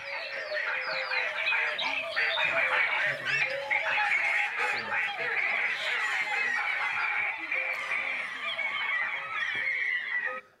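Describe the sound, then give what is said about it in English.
A dense chorus of many bird calls overlapping continuously, squawks, honks and chirps layered into a busy, steady jungle-like din that fills the whole recording before cutting off. “or you can imagine to have birds create a jungle.”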